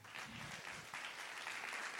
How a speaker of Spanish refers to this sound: ¿Por qué no le das un aplauso fuerte al Señor?